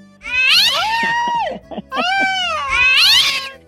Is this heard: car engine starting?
no